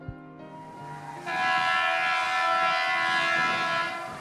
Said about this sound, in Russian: Итак, вот поезд тронулся.